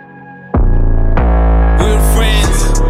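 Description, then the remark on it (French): A rap beat kicks in after half a second of quiet, with heavy booming bass hits landing at a steady mid-tempo pulse under sustained melodic tones, loud and with no vocals yet. “on va s'écouter rapidement le son …”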